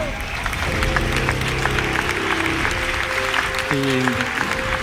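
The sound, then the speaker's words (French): A crowd applauds steadily for several seconds, dense overlapping claps filling the room, with a few raised voices and tonal cheers rising through the clapping near the end. “Un applaudissement.”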